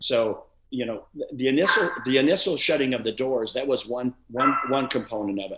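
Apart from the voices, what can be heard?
dog barking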